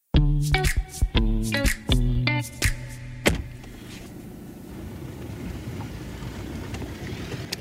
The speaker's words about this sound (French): c'est le bal des camions aujourd'hui là devant l'exploitation. Hein. Il y a du monde quand même, il y a du passage.